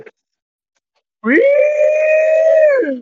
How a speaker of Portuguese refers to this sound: Tubarão, toca a sirene pra ele lembrar como é que foi a sirene do Juliano.